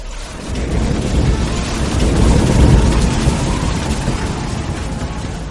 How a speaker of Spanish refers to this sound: Entonces la tormenta estalló en toda su cólera. Tres rayos cruzaron el cielo en dirección a la tierra.